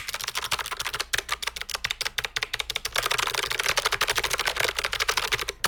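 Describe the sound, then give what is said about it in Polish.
Fast, steady typing on a clicky mechanical keyboard with blue switches, held close to the microphone. The sharp, crisp key clicks run continuously in a dense rhythm with no talking. “Oczywiście, no jest to mm, brzmienie, powiedzmy, ja specjalnie teraz podstawiam bliżej mikrofonu. Jest to brzmienie tego typu.”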